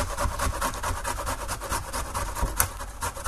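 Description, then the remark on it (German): Rapid, repeated scraping strokes of something being grated on a fine grater, a steady raspy rhythm with bright, hissy texture and a slightly sharper stroke near the end, no talking. “Ich tue den auch auf einer feinen Reibe.”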